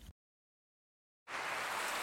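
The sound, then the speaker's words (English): A sausage patty sizzles with a dense, steady crackling hiss that starts abruptly after a silent pause and holds loud and even, with no voices over it. “Is that America cheering or a sausage patty? sizzling to perfection.”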